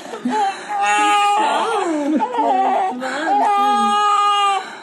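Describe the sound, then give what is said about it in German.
A newborn baby in its first minute of life whimpers and cries, a steady run of thin, wavering wails that rise and fall in pitch for several seconds without pause. “Wir haben ein Baby.”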